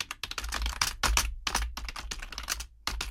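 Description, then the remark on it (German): Rapid typing on a computer keyboard as a composer writes music notation with a computer program, a dense run of sharp clacking keystrokes in uneven bursts separated by brief pauses, steady and fairly loud, with no voices. “Das ist, wenn sie auf einem Computer mit einem Computerprogramm Noten schreiben.”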